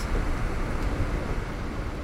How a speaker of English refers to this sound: I'm sure what I'm doing right now looks absolutely beautiful from the outside a lone car wending its way up a majestic snowy mountain. This is snow globe material, straight up.